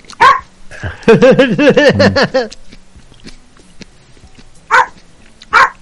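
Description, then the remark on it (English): A dog in a played video barks once, then lets out a quick run of high, yelping barks, followed by a pause and two more short, sharp barks. Fairly loud, with no talking over it. “That does sound like dog you can really kick, buddy.”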